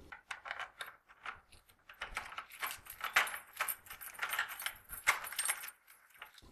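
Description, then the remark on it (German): Keys jangle and clink almost continuously for several seconds while an office door is unlocked on a frosty winter morning, a bright, busy metallic rattle with a couple of sharper clicks standing out. No one speaks. “Alles begann, als ich an einem frostigen Wintermorgen mein Büro aufschloss und drinnen die Katze vorfand.”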